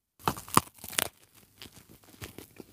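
Sharp, crisp cracks: three loud crunchy bursts in quick succession as someone bites into a chilled snack, then softer scattered crackles as the bite is chewed, with no talking.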